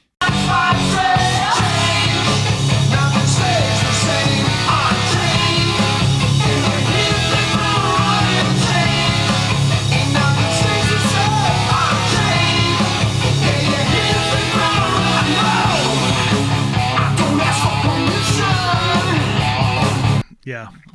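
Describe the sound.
A loud hard rock song with driving electric guitar, pounding bass and drums, and what sounds like a singing voice, playing steadily for about twenty seconds before cutting off abruptly.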